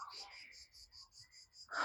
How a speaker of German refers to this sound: Ich hoffe, die Grillen sind nicht zu laut. Ich laufe hier gerade unter so einem ähm, ja, Pinienwald durch.